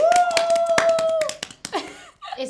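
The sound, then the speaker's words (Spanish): A brief round of hand clapping, a dozen or so sharp, uneven claps from a few people, with a sustained high-pitched tone over them, then the claps fade into voices talking. “¡Un aplauso!”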